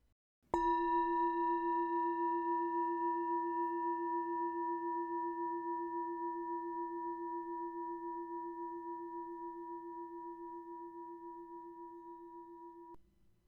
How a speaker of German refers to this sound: Und wenn du den Gong hörst, öffne deine Augen.